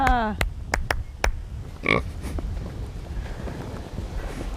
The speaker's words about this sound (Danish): Hold nu op. Jeg har aldrig set en gris med så meget hår. Nej, det hedder også en uldgris. Ej, hvor er den speciel. Ja. En træt uldgris.